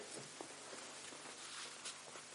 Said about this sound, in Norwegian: Lyden av to som går på en grusvei, eller én? To, to, stykker går på en grusvei, så faller den ene.